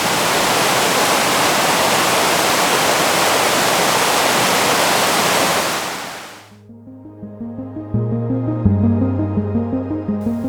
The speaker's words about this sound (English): walking back to my room that morning, I took a video of the water. To this day, when I'm feeling overwhelmed, I go back to that video and let the waves soothe my worries.